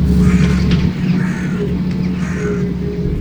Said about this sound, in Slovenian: je pa ful, več ptičev nisem pričakoval, da je živali vidiš.